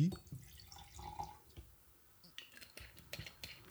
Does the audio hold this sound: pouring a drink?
yes